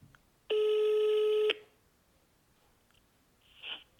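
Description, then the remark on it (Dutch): A single steady telephone ringing tone as a phone call is placed sounds for about one second, a flat, buzzy pitch with bright harmonics, then stops abruptly, followed by quiet with a faint brief noise afterward. “Dus we gaan hem gewoon even bellen.”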